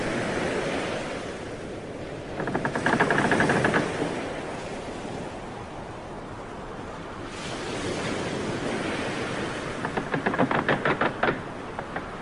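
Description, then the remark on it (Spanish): Ocean waves wash steadily around a boat, with a broad rushing surf sound rising and falling, and two bursts of rapid knocking or sloshing against the hull. “Imagina que te encuentras en un barco.”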